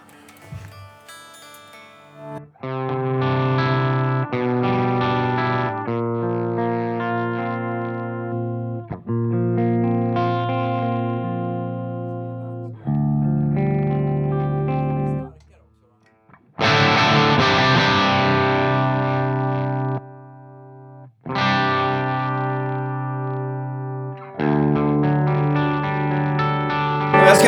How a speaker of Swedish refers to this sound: Ah, vi ska alltså lyssna på den rena kanalen på, ja. på 5150. Det jag brukar undra på är ju lite så här, varför gjorde de rena kanaler på sådana här stärkare som är liksom tänkta för dist?